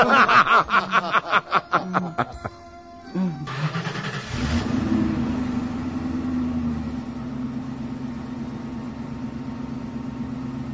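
Short bursts of laughter give way to a car engine starting and revving, then a steady engine rumble carries on as men drive off in a stolen car at night in the Belgrad forests.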